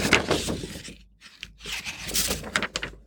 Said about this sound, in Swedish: tappar lite papper här.